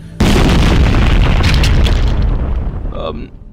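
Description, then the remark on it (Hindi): A bomb blast on a local train erupts suddenly and loudly, followed by a heavy, roaring rumble that slowly fades over about three seconds, with no voices. “सुबह की खबरों में आया है कि वो जिस लोकल ट्रेन से सुधीर सुबह ऑफिस के लिए गया है ना उस लोकल ट्रेन में बम ब्लास्ट हो गया है”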